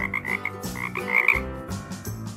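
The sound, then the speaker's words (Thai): A frog croaks steadily in a pond, a run of raspy, buzzing calls repeating in short overlapping bursts with no voices present. “กบตัวที่สองตอบตกลง ทั้งสองได้ว่ายน้ำไปกลางบ่อและให้สัญญาณกันและกัน”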